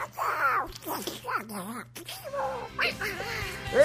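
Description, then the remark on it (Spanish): A person does a Donald Duck voice impression, a raspy, nasal squawking gabble delivered in several quick bursts, fairly loud with no other talk around it. “Oí cómo habla el Pato Donald, oí qué bonito.”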